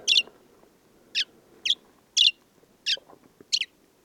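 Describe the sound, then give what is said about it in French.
A desert sparrow sings a string of six bright, high chirping notes with uneven gaps, each phrase a little different in shape, clear over a faint murmuring background. “J'ai rarement entendu un moineau aussi diversifié.”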